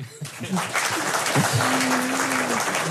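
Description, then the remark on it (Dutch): A large audience in a completely full hall claps loudly and continuously at the show Boekenstein in de Wijk, recorded at Nieuwsport in Den Haag. A dense, steady roar of applause rises after a brief quiet start, with a faint sustained voice-like tone under it. “En u hoort het, het is een helemaal volle zaal.”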